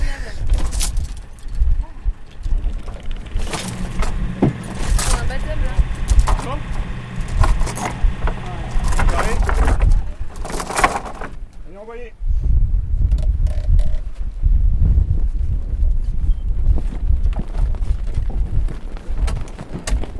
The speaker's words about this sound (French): donc le vent nous pousse. Mais là, comme on doit aller face au vent, ben, on est obligé de tirer des bords.